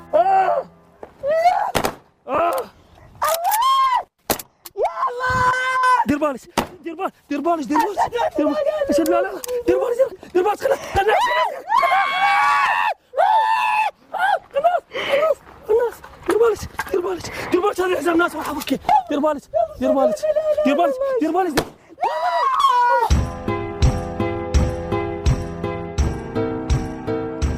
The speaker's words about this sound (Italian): Avete sentito le urla di una donna terrorizzata? È una donna che, con un numero abbastanza elevato di probabilità, è convinta che in quel momento qualcuno sta per ucciderla in maniera atroce.